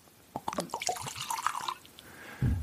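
Twelve-year-old scotch poured from a bottle into a glass: a run of quick splashing, gurgling drips whose pitch rises as it fills, followed by a low, dull thud at the end. No one speaks.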